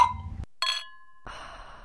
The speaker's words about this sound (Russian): Красное вино или белое? Белое. О, я угадала. Давай чокнемся.